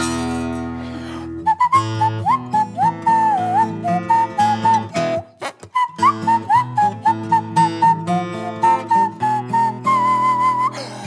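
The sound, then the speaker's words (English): A clear, bright whistled melody carries the end of a song's instrumental verse over steady instrumental backing, its tune gliding and bending between notes for about ten seconds with no singing or talking. “This is the end of the instrumental verse. It's not really an instrument, but it could be worse. And if I don't whistle,”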